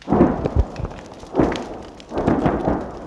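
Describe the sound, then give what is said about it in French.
Three heavy booms of artillery fire roll out about a second apart, each a loud, broad blast with a rumbling low tail and some crackle between the explosions, as a Russian shell strikes, a house burns crackling, and a missed Ukrainian position just behind returns fire. “L'obus russe vient de frapper, la maison brûle en crépitant, la position ukrainienne ratée est juste derrière, elle riposte”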